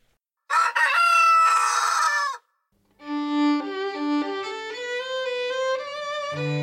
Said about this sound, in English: A member of the church has heard the first cuckoo of spring. no, cuckoo. That was a chicken. I really must have a word with my sound effects department. You've got it wrong again.